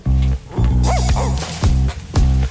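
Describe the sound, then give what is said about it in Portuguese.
A brassy, upbeat TV series theme tune in an extended mix plays in loud, punchy bursts, with a couple of short, yelping dog barks popping out over the music near the middle. “É bem, é que tem o cão e o tudo. Cão. Tem o cão e tudo.”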